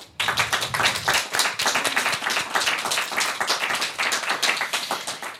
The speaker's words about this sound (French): On peut les applaudir aussi, je pense.